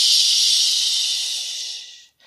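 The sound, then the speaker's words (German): During a children's dog-pose exercise, a voice makes a long, steady hissing "psch" to imitate a dog lifting a hind paw to pee, a bright breathy hiss lasting about two seconds and slowly fading before cutting off. “Dann hebt eine hintere Pfote hoch und macht, so wie die Hunde, pipi, psch.”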